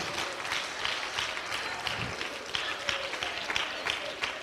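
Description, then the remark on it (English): An audience claps hands together, a dense, steady patter of many overlapping claps that runs without a break for about four seconds at an even, moderate loudness. “And clap your hands. Come on, clap your hands.”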